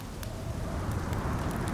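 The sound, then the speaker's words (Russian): A campfire, lit beside a tent, crackles with scattered sharp pops over a dense, steady wash of torrential rain with stormy wind and low rumbling noise, continuous throughout. “Юля разжигает костер и ставит палатку”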